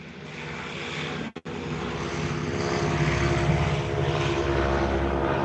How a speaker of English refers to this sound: Wow, that's a that's a beautiful sound, and uh, you know, I hate to interrupt you with all these planes taking off, but this actual this tri motor that just took off, this is actually a genuine 1929 Ford tri motor, and we are really blessed to have